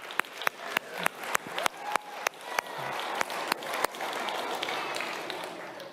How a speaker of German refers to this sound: Yes, Applaus für Spider-Man.